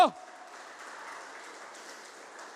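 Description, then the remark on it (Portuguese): A church audience applauds Christ loudly in a steady, dense wash of clapping that holds at an even level throughout, following a brief vocal sound at the very start. “Aplauda Ele agora nesse instante bem alto.”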